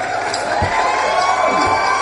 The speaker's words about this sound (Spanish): ese eh, aplauso duró muy poco, mira, eh, se, se, se Todos los, todos, los, todos los programas aplauden como Dios manda y hoy no